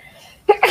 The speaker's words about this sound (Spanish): Voy a estornudar, perdón.